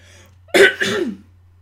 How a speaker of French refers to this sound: Pardon, j'arrive plus à parler. je vois que je tousse.